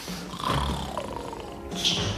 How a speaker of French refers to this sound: Mais d'où proviennent ces ronflements bizarres Des ronflements, vous dites eh Ah oui, ce sont les deux policiers. Ils ne sont pas encore réveillés.